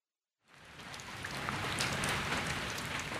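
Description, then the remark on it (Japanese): Heavy wind-driven rain pours down steadily outside with a broad, dense roar, rising quickly from silence and staying loud, with no voices. “外を見ると、激しい風雨である。”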